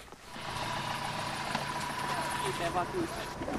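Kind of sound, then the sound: vehicle, car engine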